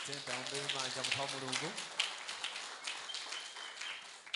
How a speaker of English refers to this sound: Let's clap for the man of God.